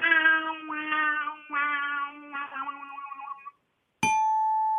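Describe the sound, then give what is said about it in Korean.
A voice imitates the sound a video game plays when you lose or die, singing four drawn-out, buzzy 'wah' notes that sag lower in pitch. After a brief silence, a sharp, bright ding rings out and sustains. “이거 그 틀렸을 때, 그, 꽝 됐을 때 나오는 소리요.”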